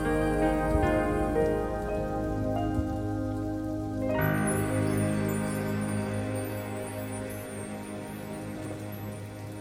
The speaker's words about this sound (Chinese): 不知道你有没有听到歌曲后面淡淡的雨声呢？